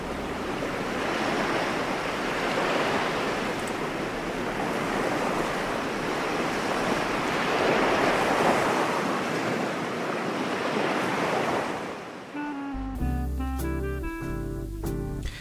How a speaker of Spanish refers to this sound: Me metí en su inmensidad a pie hasta que el agua me cubriera por completo y descubrí que el asombro ante el mar sigue intacto.